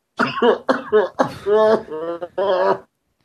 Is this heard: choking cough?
yes